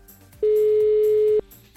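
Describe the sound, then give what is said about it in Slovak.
A single loud, steady telephone dialing tone sounds for about a second, starting and stopping abruptly over faint background noise. “zvuk vytáčania telefónu.”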